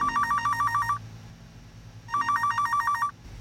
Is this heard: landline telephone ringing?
yes